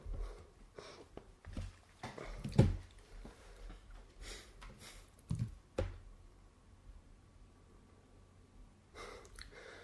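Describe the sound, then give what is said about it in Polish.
Soft, irregular tapping on phone screens as people type text messages to their wives, scattered quiet clicks with a few louder knocks, sniffs and breaths in between, and no one speaking. “Czekaj, wyślę SMS-a. właśnie, też wyślę, wyślemy, wysyłamy SMS-y do żon.”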